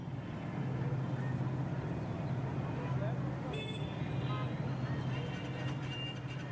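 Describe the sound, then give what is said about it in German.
Steady low engine rumble and road noise from inside a moving car, with muffled traffic of cars, ox carts, tuk-tuks and motorcycles outside and a couple of faint high-pitched horn-like tones briefly cutting through. “Im Auto sehen wir aus den Fenstern. In all dem bunten Treiben aus Autos, Ochsenkarren, Tuk-Tuks und Motorrädern stechen die orangenen Fahnen hervor, die an und um die Gebäude befestigt sind.”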